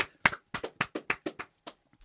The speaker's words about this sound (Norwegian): Det er ikke ofte vi gjør det, men Åge skal få en applaus her.